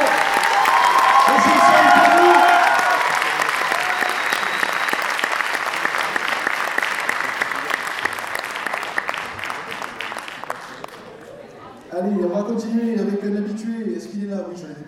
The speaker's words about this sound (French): Merci. S'il vous plaît, un tonnerre d'applaudissements, félicitations